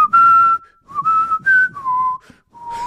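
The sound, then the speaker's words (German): Someone whistles a short melody, clear, moving through several sustained notes with brief pauses between phrases. No one speaks. “Ich mache auch noch einen, aber die pfeife, sind meine Wunder.”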